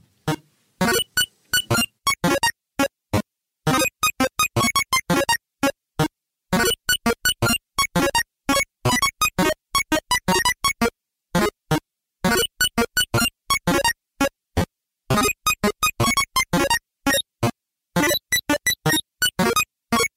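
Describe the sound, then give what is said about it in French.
Bright 8-bit chiptune music played on a Game Boy, a song reworked in 8-bit, with buzzy square-wave notes in quick staccato bursts, a busy driving rhythm, played loud with no voices. “des morceaux de votre discographie retravaillés aujourd'hui en 8 bits. le morceau qu'on va écouter tout de suite s'appelle … et il est interprété tout simplement à la Game Boy”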